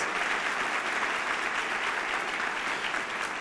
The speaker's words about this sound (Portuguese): A propósito, alguém nos visitando pela primeira vez aqui, nós amamos vocês. Vamos dar mais uma salva de palmas, Revo Church, para essas pessoas.